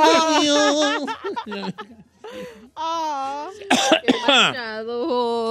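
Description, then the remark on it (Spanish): A man coughs and sputters, choking on his own saliva while talking, with a few harsh bursts between strained, drawn-out vocal groans, fairly loud. “estoy hablando con mi propia saliva como buen gordo.”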